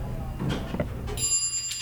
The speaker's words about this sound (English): The elevator dings. The door opens